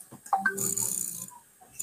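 Quick bursts of crisp mechanical computer mouse clicking come in fairly loud, with a brief pause before another short burst at the end; no one speaks.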